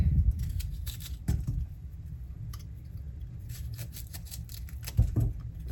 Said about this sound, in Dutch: Ik ga broccoli klein maken, want dan is hij sneller eh, gaar.